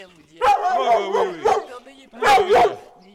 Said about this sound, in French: Oh, n'ayez pas peur, n'ayez pas peur, vous êtes gentil, mais bon, il m'aboie là, j'ai peur qu'il me bouffe le micro.